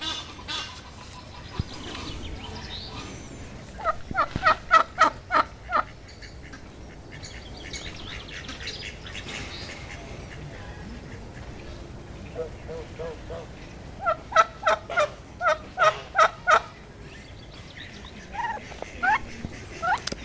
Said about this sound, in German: Eine Pute, ein Truthuhn.